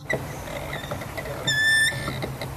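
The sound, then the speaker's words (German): A hand-cranked gondola lift creaks and squeaks as it moves upward toward an upper walkway: a steady low grinding rumble with scattered creaks, broken midway by one sharp, high, drawn-out squeal. “Ächzend und quietschend bewegt sich die Gondel nach oben.”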